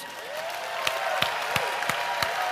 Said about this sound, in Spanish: Pero si tú estás ahí contento también, quiero invitarte a dar un aplauso y un ruido a Dios